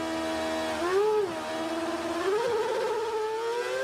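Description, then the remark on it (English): A race car engine drones steadily in wet conditions during a race in Australia, then its revs flare upward twice in quick surges as the wheels spin, the high-pitched whine rising and settling again. No one speaks. “Do you hear that wheel spin? When the car goes, whoa, it goes up in revs.”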